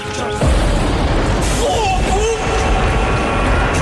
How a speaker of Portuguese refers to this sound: quase leva com um raio em cima num dia de tempestade.